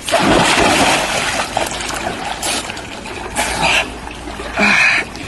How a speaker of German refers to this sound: Im Falle der Teich-Challenge springen nämlich Zoowärterinnen und Wärter voll bekleidet in die Wasserbecken von Tiergehegen und nominieren dann Kolleginnen und Kollegen aus anderen Zoos das Gleiche zu tun.